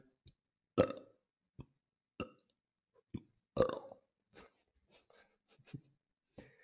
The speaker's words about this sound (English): I actually, it's made my eyes water doing that. It makes me gag a little bit, but yeah, I, I can suck air in and burp basically on command.